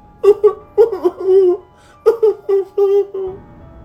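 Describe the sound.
A voice imitates a baby crying: two bursts of short, high, wavering wails, each with about four sobbing cries rising and falling in pitch, fairly loud, with a brief pause between the bursts.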